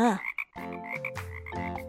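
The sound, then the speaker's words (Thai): A frog croaks in a loud series of buzzy, droning calls that shift pitch after a brief opening chirp, as a frog hops past near the roots of a big tree in a told story. No one speaks. “จู่ๆ มันก็เหลือบไปเห็นเจ้ากบตัวหนึ่ง กระโดดผ่านมา”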